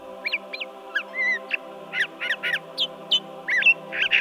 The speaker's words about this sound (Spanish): Primavera. Ah, tiempo de renovación. Suenan los pájaros.